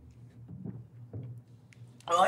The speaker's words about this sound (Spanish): ¿Qué pasó? ¿Se te fue por otro lado? Como que le di el trago y me llegó directo a la parte de atrás de la garganta.